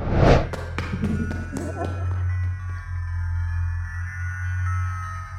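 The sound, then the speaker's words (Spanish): About six quick, hollow thumps in a fast rhythm, the footsteps of someone running across a roof, fading into a steady low droning hum that lingers to the end. “De pronto, escuché pasos de alguien corriendo por el techo.”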